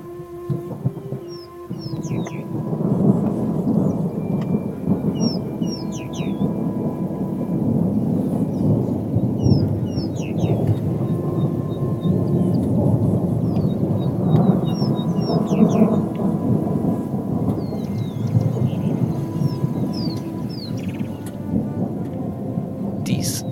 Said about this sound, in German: Das Donnergrollen am Himmel kündigt an, dass schon bald der nächste Regen fallen könnte.